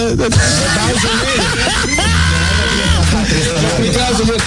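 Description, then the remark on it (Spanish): A loud, wavering goat bleat sounds over a busy, dense backdrop. It carries a long, quavering cry in the middle, with no clear speech. “Señores, yo quiero hacer un, un primero mandarle un saludo a la cabra”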